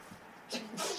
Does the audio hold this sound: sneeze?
yes